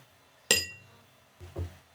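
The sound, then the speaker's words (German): Glasses meet in a toast with a single bright, ringing clink that fades quickly, followed a second later by a softer, duller knock, as if a glass is set down. No voices. “Ja, guten Appetit. Zum Prost.”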